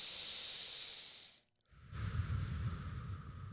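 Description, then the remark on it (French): One slow, deep breath: an airy, hissing inhale, a brief pause, then a long, rushing exhale with a low, rough edge. “dans ta, productivité avec cette respiration là très profonde”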